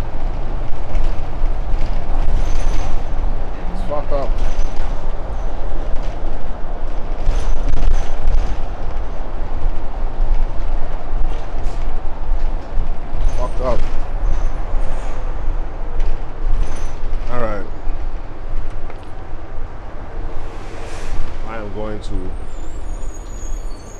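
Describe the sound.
Steady, heavy engine rumble fills the inside of a moving bus, loud and continuous, with occasional squeaks and muffled background voices over the drone.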